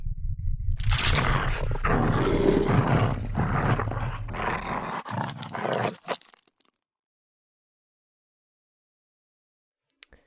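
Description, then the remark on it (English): Several animals growl and snarl together in a dense, rumbling chorus that builds loudly for about six seconds, then cuts off abruptly into silence, with a brief faint click near the end. “As your gaze is turned down toward the book while you are reading this passage, you hear the growling surrounding you turn into snarls and further into sounds of chomping and mastication.”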